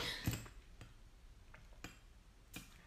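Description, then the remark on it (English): Someone sipping lemon ginger water from a glass: four soft, sharp clicks and light glassy taps spaced irregularly across a quiet few seconds, with no talking. “Okay, I just need to take a sip of my lemon ginger water as my tongue's my mouth's getting a bit dry.”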